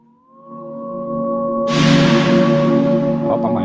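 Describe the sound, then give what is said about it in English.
A hip-hop instrumental opens with a sustained, droning synth chord that swells in, then a loud hissing, noisy layer crashes in about halfway and holds, with a few faint hits near the end. “I'm gonna take a listen right now on the Beat Club podcast.”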